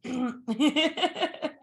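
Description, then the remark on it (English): Someone voices a demon's growl, a strained, throaty sound broken into rhythmic pulsing bursts that almost resemble a harsh laugh, loud and lasting under two seconds. “that was the sound of the demon, not of them flirting.”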